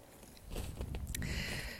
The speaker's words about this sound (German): Genau, unter meinen Füßen hörst du vielleicht auch wieder so ein bisschen den Schnee knirschen. Also ich bin hier wirklich mitten im Winter Wonderland.